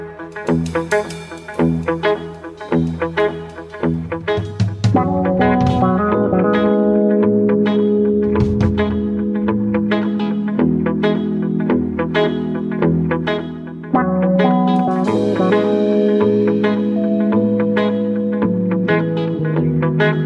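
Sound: electronic music track playing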